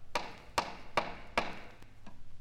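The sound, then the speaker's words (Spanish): Four firm, evenly spaced, fairly loud knocks on the door of a house, followed by two fainter taps as the knocking trails off. No voices are heard. “Pulgarcito, desde lo alto de la torre formada por sus hermanos, le llama.”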